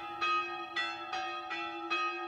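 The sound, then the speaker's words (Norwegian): Church bells at Høre stave church in Valdres ring in a steady, even rhythm, five clear strikes about a third of a second apart, each leaving a rich, humming tone that sustains into the next. The sexton pulls the bell ropes to set the rhythm. “Opptaket er fra Høre stavkirke, også i Valdres.”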